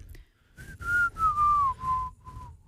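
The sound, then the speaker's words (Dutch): A person whistles a short, slightly wavering tune of several sustained notes that glide gently downward, fairly loud, with breathy airy noise around the tone and no talking. “Oh, die klinkt best goed. Ja, is heel erg blazen”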